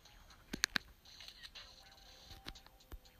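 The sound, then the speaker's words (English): A phone's camera shutter sound from taking a screenshot of game box rewards: a quick cluster of crisp, bright clicks early on, fairly quiet, followed by a faint, low background hum with no talking. “Take a screenshot of that.”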